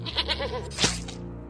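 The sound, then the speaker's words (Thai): A goat bleats in a single wavering, nasal call lasting about a second, fairly loud, with no talking, as a farmer slaughters it for food during months of heavy snow. “ชาวไร่จึงได้ตัดสินใจฆ่าแกะเพื่อกินประทังชีวิตและวันต่อมาเขาก็ได้ฆ่าแพะ”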